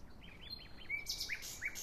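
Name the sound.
nightingales singing at night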